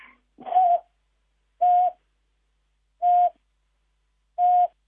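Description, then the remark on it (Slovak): A long-eared owl gives a monotonous hooting call: four short, even-pitched hoots spaced at a steady, unhurried rhythm, clear against a quiet background with no voices. “myšiarka ušatá sa udomácne niekedy aj medzi panelákmi, ak tam máme nejaké také iličnaté stromy, ako sú borovice alebo smrek pichľavy a v tomto období ešte nie sú spárené, ale ešte spolu tam zimujú a môžu sa už ozývať takým monotónnym húkaním.”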